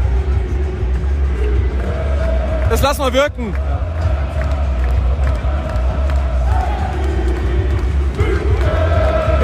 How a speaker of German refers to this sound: Fangesänge angestimmt